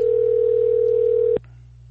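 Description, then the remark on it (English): A steady, loud telephone dial tone from an outgoing phone call hums for about a second and a half, then cuts off abruptly, leaving a low background hum. “All right, I'm calling you now.”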